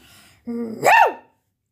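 A big dog lets out a single loud bark: a short low, growling note that swells into one deep rising-and-falling woof, then silence.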